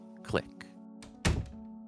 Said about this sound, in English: He slowly shuffles off and opens the door and it just slowly closes and you could almost barely hear the latch